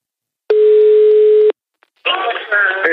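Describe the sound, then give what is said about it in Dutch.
A telephone dial tone on an outgoing call placed to congratulate someone on winning the Stripschapprijs: one steady, low-pitched tone lasting about a second, then a short silence before a voice begins talking over the line. “Maar ik ga hem gewoon eens even bellen om hem dan direct te feliciteren met die mooie prijs.”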